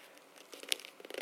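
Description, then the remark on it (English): Paper-clipped pages rustle and crinkle in quick, uneven bursts as someone fumbles with them before reading from Proverbs 28, with a few sharper crackles near the end. “Paper clips in the way.”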